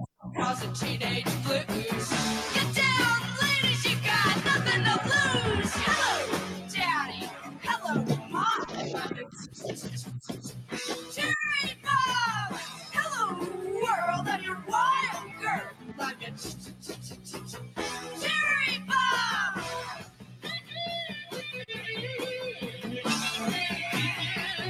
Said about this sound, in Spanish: Eh, vamos a poner un temita para que se apronte